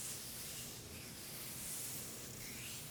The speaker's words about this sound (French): Mais le bruit du sexe, ce n'est pas que le cri de l'orgasme. C'est tout un paysage sonore qui nous entoure, nous accompagne, nous influence, nous excite. C'est le bruit des peaux qui se frottent